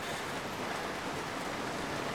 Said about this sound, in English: It's pouring rain.